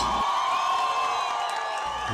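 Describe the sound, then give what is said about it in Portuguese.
A large crowd at a voice-and-guitar concert cheers and applauds loudly, with many voices whooping and shouting together in a dense, continuous roar that holds steady for a couple of seconds. “Vamos aplaudir esse encontro que tem como foco a diversidade.”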